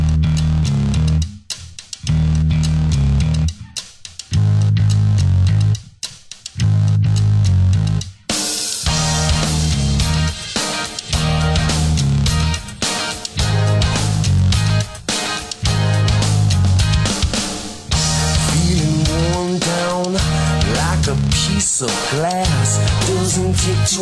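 A loud, full-band pop rock song plays with punchy drums, a driving bass line and bright guitars, starting sparse before the whole band kicks in with a dense, steady groove.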